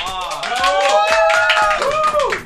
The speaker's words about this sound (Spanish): Este domingo festejamos los 200 emisiones, los 5 años de vida de 8 Bits Radio. Pueden aplaudir, vamos a aplaudir.